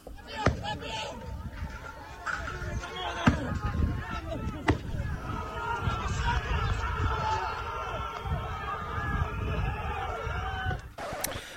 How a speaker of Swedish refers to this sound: de börjar kasta stenar mot polisen och polisen skjuter tillbaka tårgas